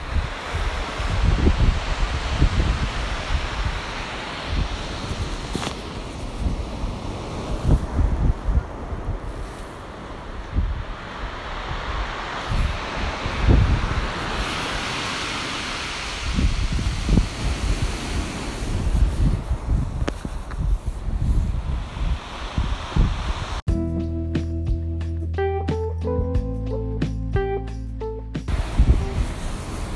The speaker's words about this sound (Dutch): En wat je nu hoort, zijn de golven die komen aanrollen op het strand met daaronder enorm veel kiezelstenen.